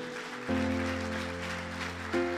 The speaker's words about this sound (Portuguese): Pode aplaudir você que ameaçou aí.